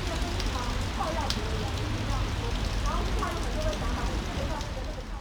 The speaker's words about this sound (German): Strömender Regen an einem Samstag im Dezember. Das Wasser verwandelt das ganze Gelände in Schlamm und sammelt sich in tiefen Pfützen.